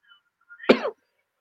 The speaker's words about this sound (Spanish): Perdón, amigos, si de repente se me va un poquito la voz o, entra la tos, pero pero bueno, aquí andamos.